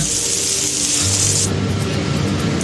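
Tenderized chicken sputters as it fries in a pan, releasing its juices: a steady, loud sizzling hiss laced with rapid crackles and pops, easing slightly halfway through while a low hum rises underneath. No one speaks.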